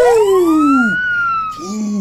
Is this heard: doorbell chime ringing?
no